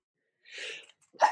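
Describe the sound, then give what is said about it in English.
A single sneeze: a breathy intake builds for a moment, then a short, sharp burst of air, with no talking around it. “God bless you, my child.”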